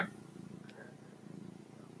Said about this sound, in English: So she's quite sweet. She loves to sit on my lap when I'm still for a while. She would prefer it if I never moved, I'm sure, but I have to move sometimes. But she's very sweet. So hopefully you'll get to hear her purring throughout this video